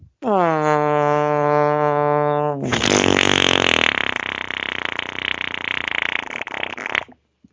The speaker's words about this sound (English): that's a seven-second fart.